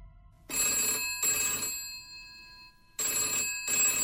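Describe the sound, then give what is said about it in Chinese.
A telephone bell rings in two loud bursts, each made of two quick trills with a short gap, bright and metallic with a ringing tone between bursts. No one speaks. “还没有等到他拿起电话，电话铃突然的响起来。”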